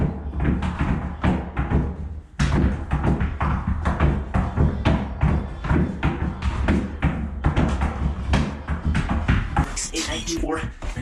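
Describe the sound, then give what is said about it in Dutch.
Many tennis balls land one after another in a large plastic bin worn on a person's head during a world record attempt to catch as many as possible, a rapid, irregular stream of hollow knocks and thuds, with men's voices straining and counting loudly over them. “zoveel mogelijk tennisballen in een grote plastic bak die je op je hoofd hebt staan vangen”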